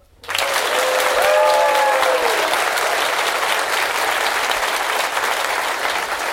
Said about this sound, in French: ce village de Malpasse, c'est là où se trouve la mairie l'école, la micro-crèche et donc la salle polyvalente qui va donc applaudir chaleureusement nos deux candidats sélectionnés pour le début de la semaine